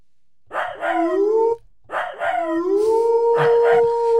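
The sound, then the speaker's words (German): A recorded wolf howl from a small plush wolf toy plays twice, each rising from a yip-like onset into a long sustained tonal wail, the second overlapping with more howling; clear, somewhat tinny like a toy speaker. “das kann vielleicht unser Spoilerwolf sagen. Welchen hättest du denn gerne? Den kleinen, das reicht, Kuscheltier.”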